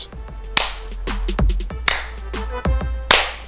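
Three slow, loud hand claps spaced more than a second apart, sharp and close, with faint tonal background sounds in between and no talking.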